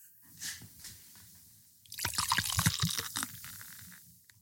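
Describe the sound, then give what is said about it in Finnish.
Beer glugs and splashes as it's poured from a Desperados bottle, a quiet gurgle swelling into a fuller, fizzy pour for a couple of seconds, with no talking. “Haluatko sä, jos mä kaadan sulle tästä ekaksi?”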